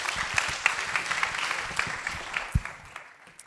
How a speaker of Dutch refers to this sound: Ja, dankjewel. Applaus.